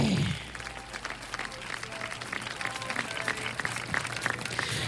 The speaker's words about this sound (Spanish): ¡Aplausos! ¡Cómo no! ¡Claro que sí, mi cuate!